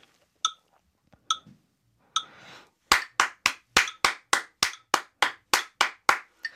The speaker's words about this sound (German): Wenn ich jetzt die Triolen klatsche, dann äh, teile ich ja diese Viertelnote in drei Achtel ja. pro Note und das klingt dann so.